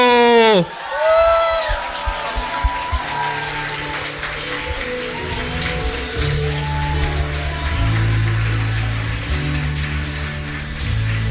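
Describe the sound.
Sustained audience applause and cheering welcoming a guest, steady and fairly loud, with music playing underneath and a brief voice or whistle at the start.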